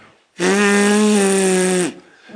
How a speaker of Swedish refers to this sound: Ehm, och detta pulserande ljud det är detta pulserande luftflöde är ljud då, som, som man kan få om man blåser genom fingrarna.